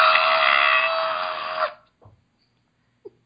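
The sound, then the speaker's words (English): A person's voice imitates a harsh, nasal screech, one loud sustained blast lasting under two seconds that cuts off abruptly, followed by a few faint, brief noises. “it's not Jim Carrey and Dumb and Dumber doing that awful screech”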